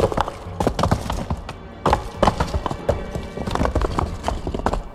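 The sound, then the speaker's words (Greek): Rapid, irregular clip-clop of galloping horse hooves, sharp percussive thuds tumbling over one another with a rumbling low end, fairly loud and steady for the whole stretch, no voices. “Έκατσεν τζαμέ που του δείξαν, τζαμανιφία οι εσηκώστη χάλουπα χάλουπα και έπιαν τις φτέρες του ποταμού.”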